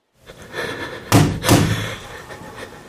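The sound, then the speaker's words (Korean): Two firm knocks on the wall above a man's head, given as a signal, evenly spaced about a third of a second apart. They are dull and thudding, over a low, steady background hum, with no voices. “깊게 숨을 내쉬며 머리 위 벽을 두 번 두드려 신호를 보낸다.”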